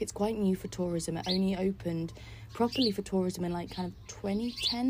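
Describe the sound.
Small birds chirp faintly and intermittently in the background while a person talks steadily, the high tweets mostly buried under the voice.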